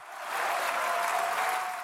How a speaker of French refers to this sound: Pour 196 contre 183. Un tonnerre d'applaudissements et des députés qui se lèvent de chaque côté de l'hémicycle pour célébrer leur victoire.